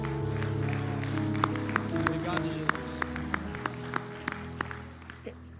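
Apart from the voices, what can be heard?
audience applauding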